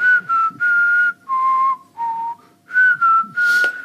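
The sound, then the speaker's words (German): Someone whistles a film theme melody, a series of sustained notes in short phrases with brief pauses between them, loud and clear with no talking. “Guck mal, da, da stellen sich jetzt ja, nur, weil du so schlecht pfeifst, stellen sich bei ja, mir hier die Arme.”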